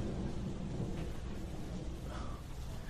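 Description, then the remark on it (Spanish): Steady, dense rain hisses without pause while a deep, rolling thunder rumble fills the low end, sounding somewhat muffled as if heard from inside a room. No voices. “La lluvia desde acá adentro no suena igual.”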